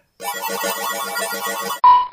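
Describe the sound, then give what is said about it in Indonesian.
A rapid, repeating electronic alert tone from an Uber ride-hailing app announcing a new order on a smartphone pulses for about a second and a half, then cuts to a single bright, sustained beep; loud, with no talking. “Eh, udah dulu ya. Ada order nih di Piccadilly Circus.”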